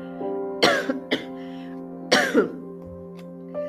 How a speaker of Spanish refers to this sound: Perdóname por tanta tos. Yo sé que no está padre estar escuchando a alguien que esté tosiendo, pero me quedó una tos, híjole, y me da muchísimo coraje que hablo y toso, hablo y toso, hablo y toso